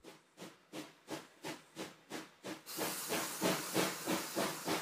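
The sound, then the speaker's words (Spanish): A steam locomotive chuffs in a steady rhythm of sharp hissing bursts, then lets out a louder, continuous rush of steam that keeps pulsing underneath. No one speaks. “Un segundo triunfo de los estados industrializados del norte es el ferrocarril.”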